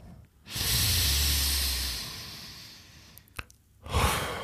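A man draws in a long, deep, loud breath lasting a couple of seconds, close to the mic, followed after a short pause by another brief breathy burst. No one speaks.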